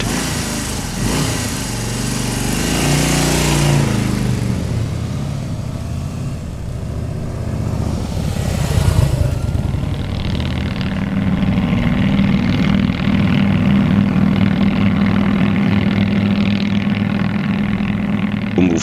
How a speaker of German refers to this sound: Harley stellt man sich immer noch den V2 vor, der da ein vor sich her blubbert und so äh, da den Bass rauffährt.